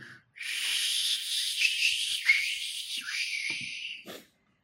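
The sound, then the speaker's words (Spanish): A person makes a long, breathy whistling whoosh with their mouth, imitating the eerie rush of passing through a wormhole, sustained and wavering for about four seconds, with no talking. “¿Puedes hacer una recreación del, sonido que habría al cruzar un, agujero de gusano?”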